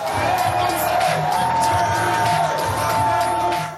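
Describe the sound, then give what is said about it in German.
A crowd of Andrew Young's supporters cheers and whoops continuously at a US presidential campaign event as the entrepreneur ends his presidential bid, a loud, dense wash of many voices with scattered shouts rising above it throughout. “Selbst bei Andrew Young wurde diese Woche gejubelt und das, obwohl es gar nichts zu jubeln gab.”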